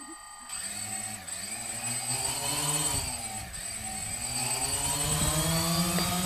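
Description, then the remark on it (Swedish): A small unmanned drone helicopter spins up and lifts off from the studio table in Kvanthopp's web studio, its high rotor whine steady with shifting harmonic tones as it rises and hovers, no speech over it. “Det här är en obemannad helikopter som startar från studiobordet inne i webbstudion.”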